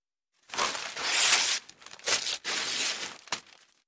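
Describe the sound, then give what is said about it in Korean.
A hanging paper scroll painting is taken down and ripped apart in several forceful, crackling bursts, fairly loud, with brief pauses between tears and a final short rip before it fades. “그날 밤 오생이 주선랑을 희롱하는 것을 보고 매우 화가 나선 선랑을 때리려 하였는데 선랑이 벌써 그림 속으로 들어가 버리니 민 씨가 더욱 분노하여 족자를 떼어 찢어버렸다.”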